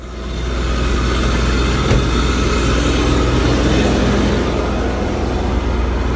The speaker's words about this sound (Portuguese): Passamos o trator. É um absurdo. O trator aqui no meio da, da trilha.